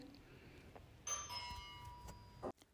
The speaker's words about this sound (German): Okay, wenn man vom Teufel spricht, jetzt hat natürlich gerade der Rauchfangkehrer geklingelt. Ähm, aber zum Glück war er jetzt immerhin da.